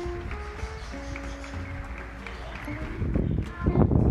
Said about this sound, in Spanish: Están aplaudiendo los ciudadanos agradeciéndole al este, sistema sanitario por las muertes que están salvando. Vamos a escuchar en vivo y en directo el aplauso.